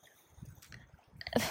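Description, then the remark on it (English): Soft, irregular sloshing of lake water lapping at a lake, with gentle gurgles building toward a slightly louder splash at the end, in sunny, cloudy, slightly rainy and windy weather. No one speaks. “Um, I'm sure you could probably hear the the lake sounds in the background, but it's like sunny and cloudy and slightly rainy and definitely windy and it's just doing all of the weather things”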